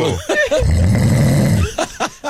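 A single loud, rough snore with a low, rattling, buzzing texture lasts about a second, framed by brief voiced grunts or murmurs before and after.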